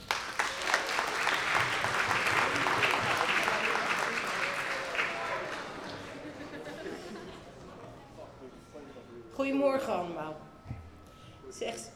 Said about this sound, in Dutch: Eh, en voordat we echt gaan beginnen, gaan we, uh, wordt de opening verzorgd door onze eigen burgemeester. Dus graag een groot applaus voor Marina Stammans.